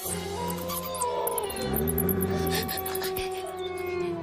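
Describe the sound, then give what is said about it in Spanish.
Several wolves howl together in a forest at night, in long, wavering overlapping tones that rise and bend, a sustained chorus filling the whole stretch with steady loudness and no speech. “Devorada por lobos.”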